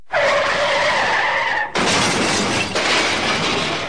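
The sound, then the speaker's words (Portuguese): Tires screech in a loud, sustained skid for over a second, then a sudden crash erupts into a burst of broad noise with shattering debris that continues to the end. “É que, de acordo com André Zevedo, da Healthy Roads, uma startup ligada à Universidade do Porto, o sono e a distração estão na origem de mais de metade dos acidentes de carro.”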